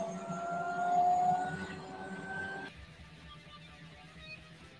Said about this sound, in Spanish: Ya está empezando el helicóptero, ya está sonando, ya está sonando.